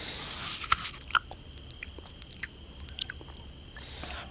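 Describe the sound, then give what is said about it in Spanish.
Someone chewing and crunching food: a string of sharp, crisp crunches at an irregular pace, a few louder bites standing out, with no talking and a faint steady hiss underneath. “Sin embargo, la comida que Elena engullía no eran más que objetos viejos tirados en el piso.”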